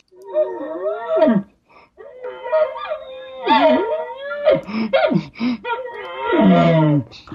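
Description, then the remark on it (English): A human voice imitates an excited bull calling to a cow coming into heat, with breathy panting bursts and throaty, bellowing glunks and moans in rapid succession, fairly loud, with no ordinary speech. “I'm kind of working the, the bull sounds with a little bit of raking, a little bit of panting, and the cow sounds and glunking”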